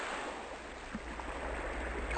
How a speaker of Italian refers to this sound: Marosi. Flutti. Acqua a perdita d'occhio a 360 gradi non ferma, bensì semovente.